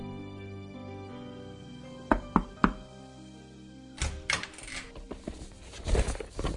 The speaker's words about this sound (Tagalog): Pero wala pa pong isang oras matapos ang pangyayaring yon, ay nakarinig ako ng katok sa aking kwarto.